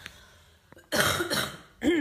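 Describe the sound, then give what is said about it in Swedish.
A loud cough in two harsh bursts, followed by a short throat-clearing sound after a brief pause, with no talking. “Vänta, nu måste jag hosta.”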